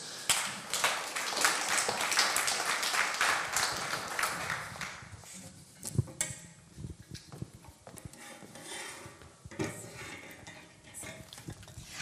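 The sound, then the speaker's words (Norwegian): A church audience at a Pentecost Sunday service applauds a woman invited to speak, in a dense, crackling burst for about five seconds, then the clapping thins out into scattered, fading claps and a few knocks. “Ta, gi henne en god applaus.”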